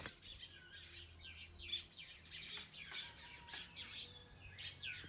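Many birds chirp and tweet continuously in overlapping bursts, a busy outdoor chorus at moderate volume with a faint low hum underneath and no voices.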